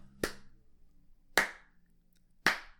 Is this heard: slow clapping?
yes